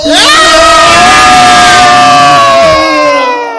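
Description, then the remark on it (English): Several voices scream together in one long, loud, sustained shriek that holds steady for a few seconds before trailing off slightly at the end. “Uh, of course, as all those thoughts are, are running through your heads, what's actually coming out of your mouth is screaming one, two, three.”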